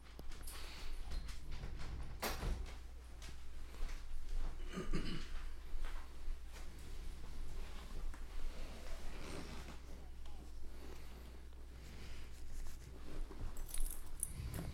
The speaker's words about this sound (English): the dog has entered the room.